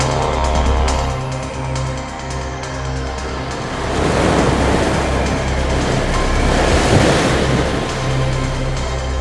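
Ocean waves surge and crash against the rocks at the tip of a headland, a loud, broad roar that swells around the midpoint before easing slightly, with a steady low rumble underneath and no voices.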